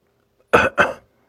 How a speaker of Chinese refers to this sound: 这下。终于有反应了，我听到屋子里传来了男人的咳嗽声。